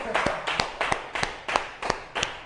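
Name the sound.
clapping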